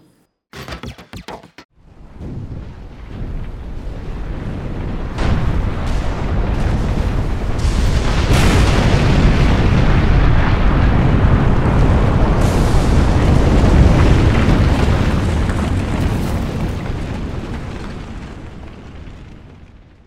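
An eruption of the Popocatépetl volcano on 21 August 2020 opens with a few sharp cracking bursts, then swells into a loud, sustained rumbling roar that holds for many seconds before slowly easing off. No voices are heard.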